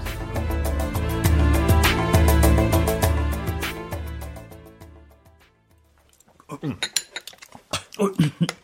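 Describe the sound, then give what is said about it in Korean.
Music plays for several seconds and fades, then a quick, uneven run of sharp clinks and clatters of utensils against bowls follows as a starved youngster eats in a hurry. “아, 아, 천천히 먹거라, 이놈아. 그러다가 그럴거정 삼키겠다.”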